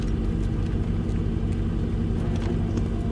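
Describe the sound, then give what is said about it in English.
A heavy truck engine rumbles steadily as the truck is being moved, a deep continuous drone with low throbbing that holds level throughout, with no voices. “They're just moving the truck.”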